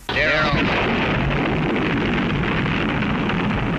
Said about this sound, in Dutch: Ja, beroemd geworden als de Daisy Commercial. Je hoort een nucleaire ontploffing.